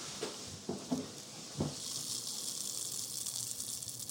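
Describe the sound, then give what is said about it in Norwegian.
Liquid pours close to the microphone: a few soft knocks at the start, then a steady, hissing splash of a thick stream that continues evenly to the end, with no talking. “Hold den bortåt mikrofonen da, når du tømmer.”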